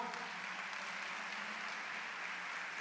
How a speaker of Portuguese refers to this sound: Pode aplaudir o Senhor.